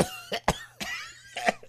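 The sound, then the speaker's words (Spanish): A person fakes a string of coughs, as if calling in sick to work: two quick hacks, a third after a short pause, then a final pair of raspy bursts, with no talking in between. “Que por cierto, empieza a toser el chute”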